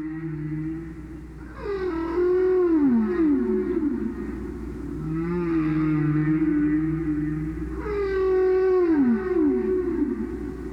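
Long, eerie whale song with sweeping, wavering tones that glide up and down in repeated phrases, set against a low, steady underwater rumble, with no voices present.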